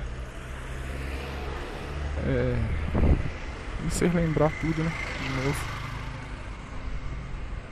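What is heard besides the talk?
bus approaching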